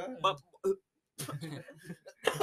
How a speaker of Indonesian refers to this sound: Wah dia batuk, batuk, batuk